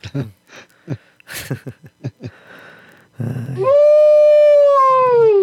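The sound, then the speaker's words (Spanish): After a few seconds of choppy talking and laughter, a person lets out a long, loud, wavering howl imitating a werewolf, sustained for about two seconds. “Todo el hombre lobo también.”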